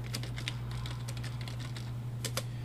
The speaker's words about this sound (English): if you hear me typing, it's because I'm multitasking.